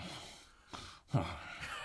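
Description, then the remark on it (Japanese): A voice imitates Suzuki Mogura's snoring, heard inside a car, with breathy rasps, a few drawn-in and pushed-out breaths in uneven rhythm, one louder snort-like catch near the middle, no words spoken. “という、鈴木もぐら様の音いびきが、生で尊いあのいびきが聞けるなんて思ってもおらず、感動いたしました。”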